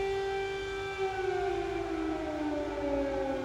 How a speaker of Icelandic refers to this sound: á meðan við skýlum okkur á bakmið vegg sandpoka þegar loftvarnar flauturnar fara enninu sinna að væla hér við ráðhúsið í saporitsja.